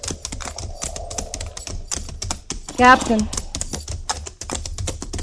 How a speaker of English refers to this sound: We'll keep the horses at walk just the same for a while.